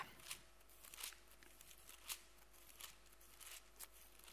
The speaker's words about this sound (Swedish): Det var mycket bläddrande för mig här.